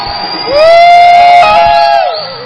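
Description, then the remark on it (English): A church audience bursts into loud shouting and cheering to God after a reported healing, one high sustained whoop rising above the crowd's roar for over a second before the noise tapers off. “Give God some shout in the house.”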